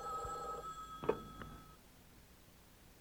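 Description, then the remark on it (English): A telephone rings with a bright electronic trill that cuts off after about a second and a half, followed by a soft clack like the receiver being lifted, then quiet room tone. “He soon dozed off, but was awakened when his phone rang.”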